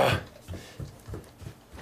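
An excited dog greeting its owner: a sharp opening burst followed by several short snuffling huffs and breathy whimpers at an uneven, eager rhythm, moderately loud, with no talking.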